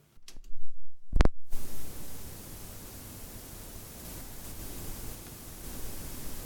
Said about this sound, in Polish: nawet magnetofon sam wzmacniacz jeszcze przed włączeniem jakiejkolwiek kasety generuje taki szum. Dlatego właśnie był na początku audycji.